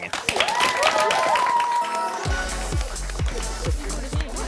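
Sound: audience cheering and applause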